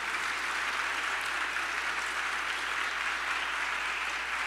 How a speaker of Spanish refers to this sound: Así es de que dale un fuerte aplauso a ese Dios admirable.